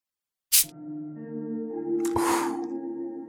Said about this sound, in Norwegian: da er vi klare for å uh, poppe korken. Skal vi se om vi kan høre det.